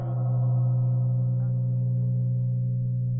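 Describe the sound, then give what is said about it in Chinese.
A large ancient bronze temple bell, about 1.6 m tall with a mouth about 1.05 m across and cast with over twenty Sanskrit mantras, heard through a wooden board, resonating in a deep, sustained hum, its rich layered overtones ringing steadily and fading only slightly over a few seconds, with no voices. “嗯，不知道你有没有类似的这种体验或者是感受，就是每每听到类似于这样的古老钟声的时候，呃，其实整个人的心好像就会马上静下来”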